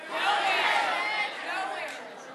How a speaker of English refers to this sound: I want you to yell out on the count of three just your favorite spot to just hide stuff. Okay? So on the count of three, let me hear you. Just yell it out. One, two, three.